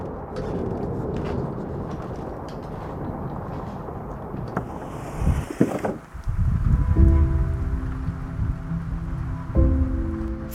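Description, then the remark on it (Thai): Unseasonal rain: steady rain hisses throughout, with scattered drops pattering in the first half; midway the sound deepens into a heavier, rumbling downpour carrying a faint low hum. “ฝนหลงฤดูทำให้ใจฉันดำดิ่งมากกว่าเดิม”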